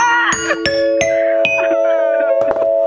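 A bright ding-dong-dang bell chime: a quick run of struck, ringing notes that overlap and sustain, loud and close, sounding like a cheerful approval jingle.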